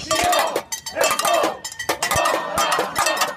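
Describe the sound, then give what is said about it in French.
Metal saucepans banged by a crowd of protesters at a demonstration before a François Fillon meeting on 9 February 2017 in Poitiers, a dense, continuous clatter of bright clanging strikes with bursts of overlapping hits and no clear rhythm. “Manifestation avec des casseroles avant un meeting de François Fillon le 9 février 2017 à Poitiers.”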